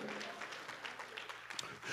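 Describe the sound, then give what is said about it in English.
An audience at a church service claps their hands together to give praise to God, a dense, steady patter of many overlapping claps with a faint murmur of voices beneath. “Come on, clap your hands again Give God a praise right there if you're in the building.”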